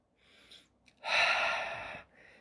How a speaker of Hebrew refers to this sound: אז בואו ננשום שנייה אחת